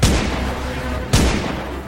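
two gunshots

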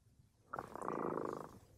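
cat purring

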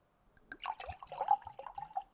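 water pouring

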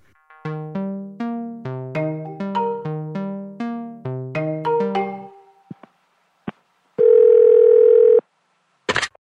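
telephone ringback tone

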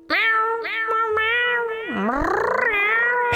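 cat meowing

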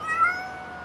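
cat meowing

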